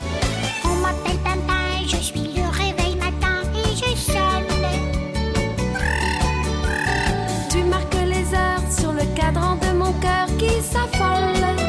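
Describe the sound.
A singer vocally imitates a ringing alarm clock over a loud, bouncy musical backing, with rapid repeated chirpy notes pulsing steadily throughout.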